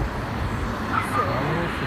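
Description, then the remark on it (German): A steady, fairly loud wash of street traffic rumbles past without a break, with indistinct voices mixed into the background noise. “Verkehr.”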